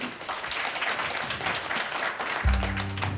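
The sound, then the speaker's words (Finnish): An audience applauds steadily, a dense, even crackle of many hands clapping throughout. Near the end, low sustained musical tones rise beneath the clapping. “Aplodit”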